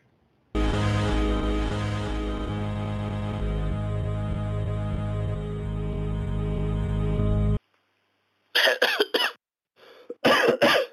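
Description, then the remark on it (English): After a long, loud droning tone cuts off and a brief silence, a person coughs in two harsh bursts, one right after the other. “I mean, you're coughing, and I just got your status update.”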